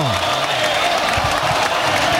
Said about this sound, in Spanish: Ha, conseguido levantar a la gente de los asientos como estaba la gente Gritos de torero, torero.